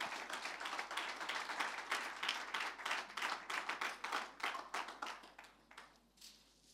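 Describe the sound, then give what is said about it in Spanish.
An audience applauds in praise of the Lord, with dense, sustained clapping, many hands overlapping in a bright crackling wash that holds steady for several seconds before thinning out and fading at the end. “Fuertes aplausos alabanza al Señor.”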